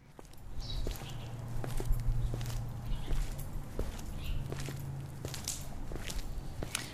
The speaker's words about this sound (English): It's the sound of someone walking. In fact, this person has walked a long way and their feet are starting to ache.